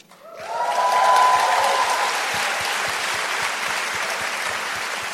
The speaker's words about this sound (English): I didn't write that to get a clap, but thank you.